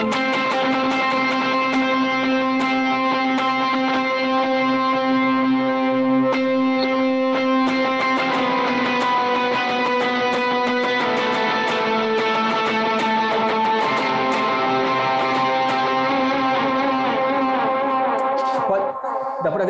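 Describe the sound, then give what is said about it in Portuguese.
An overdriven electric guitar, run through two drive pedals, a pitch effect, two delays and reverb placed in front of the amp, plays sustained, layered chords drenched in delay and reverb, with a shimmering pitch-shifted octave above, holding steady and loud for the whole passage before cutting off at the end. “Tem dois drives ligados, o pitch, dois delays e o reverb.”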